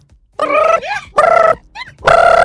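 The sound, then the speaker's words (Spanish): A voice imitates a ringing telephone at the start of a joke, with three loud, steady, buzzy tones separated by brief gliding warbles and no other talk. “Eh, suena el teléfono.”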